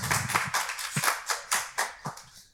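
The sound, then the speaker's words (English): A live audience claps and cheers in answer to whether the CFPB overreacted in the fine it gave Digit for its algorithm, a quick, uneven burst of overlapping hand claps, with a few sharper individual claps standing out before the applause thins and fades over a couple of seconds. “cheer if did the CFPB overreact in the fine that they gave Digit for their algorithm?”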